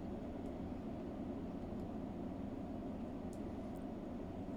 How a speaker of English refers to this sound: And you hear a whooshing around you as suddenly the air is filled with spirits and ghosts that have been haunting Rails End.